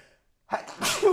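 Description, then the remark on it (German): A single loud sneeze bursts out after a brief silence, with a sharp inhale building into a forceful, breathy explosion. “Gesundheit. Entschuldigen Sie bitte.”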